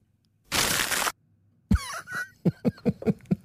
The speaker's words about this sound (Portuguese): Mas tanto num como noutro, nós somos brindados com um dos sons mais deliciosos e compensadores da história da informática, que é o som do amarfanhar dos papéis. Vamos ouvir.